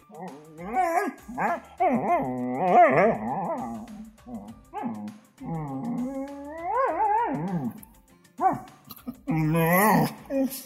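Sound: dog barking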